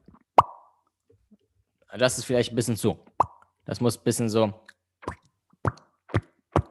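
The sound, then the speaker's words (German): A voice makes sharp, hollow mouth plops that imitate dripping water drops, a few spaced out alone and others between short bursts of talking. “Das klingt eher wie so Wassertropfen, oder?”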